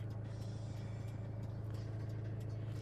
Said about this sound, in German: Das war die Autobahn und jetzt kommt die beschissene Scheißstraße, wo 500.000 Autos vorbeifahren in der Sekunde und ich nicht, und ich nicht wegkomme hier.